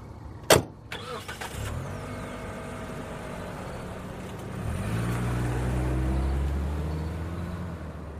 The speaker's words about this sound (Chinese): 有车经过这里